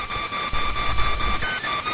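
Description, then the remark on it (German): Noise from a cheap USB sound card, made when the processor works, layered several times and mixed into a music-like loop: steady high electronic tones hum beneath rhythmic bursts of buzzy digital interference, Morse-code-like signals and low rumbling pulses, fairly loud and with no voices. “Billige USB-Soundkarten machen Geräusche, wenn der Prozessor arbeitet.”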